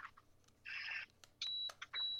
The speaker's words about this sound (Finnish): Kuuleeko kun piippaa? Mm-hmm. Kohta lähtää salama.